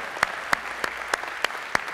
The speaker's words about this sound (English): Come on, why don't you hiss the enemy away by the clapping of your hands today? Come on. We bless you, Lord.